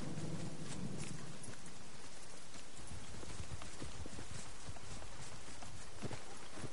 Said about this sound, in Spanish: El grupo cabalga bajo la lluvia.